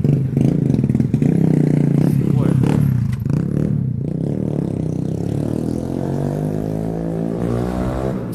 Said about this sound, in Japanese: すごい細いとこからバイクが